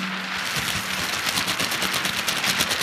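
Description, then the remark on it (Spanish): Sheets of paper shaken all at once by several people in the Toreski studio to imitate distant rain layered over a nearer rain: a dense, steady, hissing crackle with rapid irregular pops, holding an even loudness throughout with no voices. “Si lo agitáis todos a la vez, Tenemos una lluvia lejana que se superpone a esta más cercana.”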